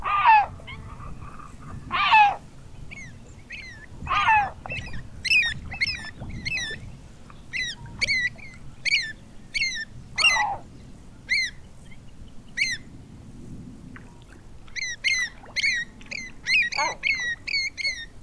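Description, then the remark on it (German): Several hoarse, harsh great black-backed gull calls ring out at intervals, set against a steady stream of short, high-pitched chirping calls repeated in quick bursts, with no talking. “Und damit auch noch nicht die Wintervögel, sondern nur so ein paar, die jetzt so ein bisschen äh, irrlichternd äh, auch mal bis ins Binnenland vordringen wie unsere Mantelmöwe.”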